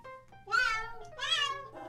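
Two drawn-out, tonal cat meows from a pet translator app in its Whiskers mode, translating "BZZ Cast", rising and falling in pitch, followed by a shorter third one starting, loud against a faint electronic hum.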